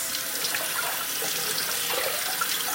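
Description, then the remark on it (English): A steady stream of tap water runs and splashes over one cup of blueberries in a colander as they are rinsed, a continuous hiss with slight fluctuations, no voices. “So I'm just giving my one cup of blueberries a rinse.”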